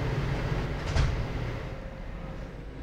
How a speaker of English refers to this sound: Step back. Doors closing.